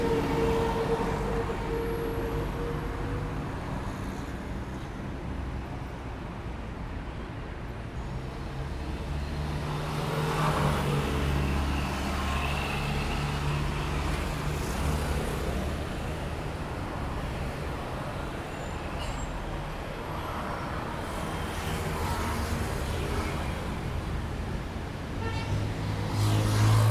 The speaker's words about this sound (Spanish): Estos niveles de ruido son los que se deben soportar en un departamento en la ciudad si uno quiere abrir la ventana.